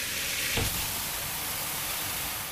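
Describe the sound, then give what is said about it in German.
A shower runs steadily, its water spray making a continuous hiss with a brief louder splash early on and no voices. “Ich habe heute Morgen geduscht,”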